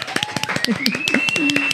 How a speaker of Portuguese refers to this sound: Uma salva de palmas!